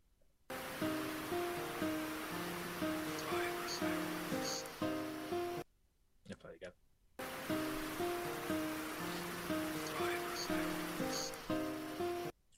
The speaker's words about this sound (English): You can hear the water in the background just rush running in the background.